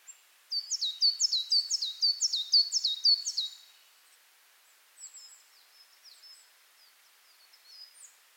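A small bird sings a rapid series of bright, repeated chirps for a few seconds, followed by softer, scattered calls against quiet forest ambience with the sound of trees.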